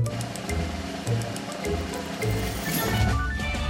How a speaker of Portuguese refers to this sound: Será o som de um rio a passar, de água a cair numa cascata ou alguém a lavar o carro naquelas máquinas automáticas perto dos supermercados que costumas ver, de certeza.